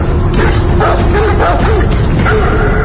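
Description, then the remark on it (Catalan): Several dogs bark and yip in a film trailer, over a dense, loud background, with rising whimper-like tones weaving through the barking across the few seconds. “Reben uns gossos i no sé què passa.”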